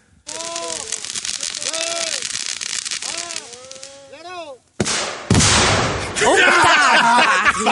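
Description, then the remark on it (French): Several rising-and-falling calls sound over a steady hiss, then after a countdown a sudden, loud explosive blast erupts at an evacuated site, followed by a heavy, sustained roar and crackling rumble until the end. “Il y a juste nous autres sur le site, et là trois 3, 2, 1, et là, ça pète.”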